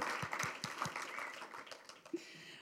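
An audience at a church service applauds, a dense patter of many hands clapping at a moderate level with a few sharper, more distinct claps standing out early on, continuing steadily throughout.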